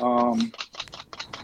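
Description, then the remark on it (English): A one-tablespoon cookie scoop clicks repeatedly in quick, uneven bursts as cookie dough is scooped, fairly crisp, right after a brief hesitant murmur from a voice. “what you hear there is me. Are, are these little cookie scoops, y'all?”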